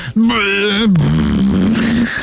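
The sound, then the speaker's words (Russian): A man's voice imitates a revving motorcycle engine, a sustained buzzing growl that rises and wavers in pitch for about two seconds before dropping into a rougher, rattling drone. “я слышал какие-то планы вообще мирового сообщества, там, уже к 2030 году перейти полностью на перейти на электромобили, уже не услышишь рев, вот это...”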